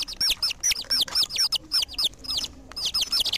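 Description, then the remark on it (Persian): Many high-pitched peeps from five small yellow chicks in their nest overlap in a rapid, continuous flurry, fairly loud, with brief pauses between bursts and no voices. “میدونین اسم بچه یا آقا خروسه و خانم مرغ چیه؟ بله بله. جوجه. جوجه کوچولو.”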